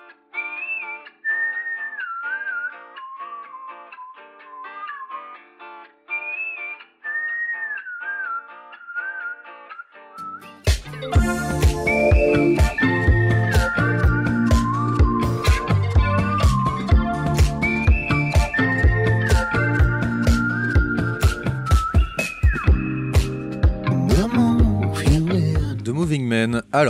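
A lone whistled melody plays clearly for about ten seconds, then a full band with drums and bass kicks in while the whistled tune carries on loudly over the music.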